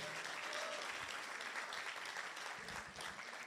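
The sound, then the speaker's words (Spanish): A church audience breaks into steady applause during a sermon, a dense wash of many hands clapping at a constant, moderately loud level for the full few seconds, with a faint murmur of voices beneath it. “Vamos, denle una, yo creo que eso merece un aplauso, yo creo que está dormido hoy.”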